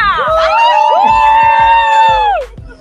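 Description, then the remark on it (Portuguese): A loud, sustained cheer from family cheering on a runner: a high whooping voice or two slides up and holds a long bright "woo" for about two seconds, with dull thumps underneath, then cuts off. “Cadê a torcida?”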